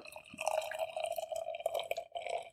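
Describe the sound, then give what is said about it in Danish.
Beer being poured into a glass: a steady, continuous gurgling stream with a ringing, bubbly tone, heard alone without any voices. “det kan være, at vi skal have noget øl i glas”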